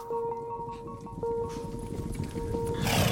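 Horses clip-clopping in a steady rhythm, with a sustained tonal hum underneath and a rush of noise building toward the end.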